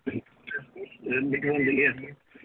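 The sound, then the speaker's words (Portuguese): A caller from Gaia speaks through a thin, band-limited phone line, with the caller's own radio playing the broadcast in the background and overlapping the voice, a muddled, echoing interference at moderate volume. “Pode falar, tem é que desligar aí o rádio, não sei se está no carro, porque para o podermos ouvir, senão vai aqui uma interferência e não nos ouvimos um ao outro.”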